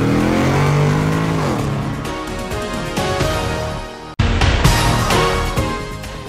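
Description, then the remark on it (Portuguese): A car engine roars loudly as the car engages first gear and accelerates hard, revving, with a brief break partway through like a gear change before the engine surges on again. No one speaks. “Sérgio, engata a primeira e acelera!”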